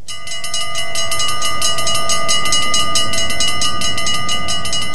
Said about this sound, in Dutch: Want toen de auto's nog over de lijn moesten, stonden ze aan beide kanten te wachten tot die openging. En als dat dan eindelijk gebeurde, konden er een paar auto's door en ging de lijn direct weer dicht. Altijd rinkelde daar de spoorbellen.